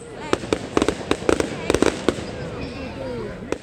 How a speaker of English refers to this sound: It was recorded last week at a firework display my family and I went to.